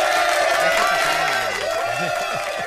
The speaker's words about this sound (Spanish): El aplauso.